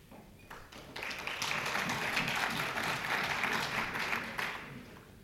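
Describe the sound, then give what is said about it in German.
Audience applause rises quickly into steady, dense clapping from many hands, holding at a moderate level for several seconds before starting to thin out at the end. “Kein Beifall an der falschen Stelle.”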